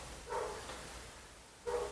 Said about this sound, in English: Can these dogs shut the hell up?